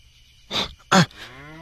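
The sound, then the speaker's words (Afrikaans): A cow gives two short, breathy snorts, then a low, drawn-out moo that trails off, with no one talking. “Watter wêreld het mens ooit al van 'n koei gehoor wat haar kooi binne 'n huis loop soek?”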